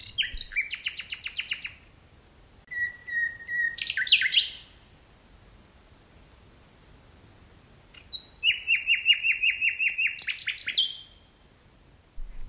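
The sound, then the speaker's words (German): A nightingale sings alone in two bursts: fast repeated chattering notes, a clear sustained whistle swelling into a rapid trill, then after a pause another bright, loud run of whistles and trills. “Bis Mitte Juni verzaubern sie uns mit ihren Liedern, nicht nur in der Nacht, sondern auch am Tag.”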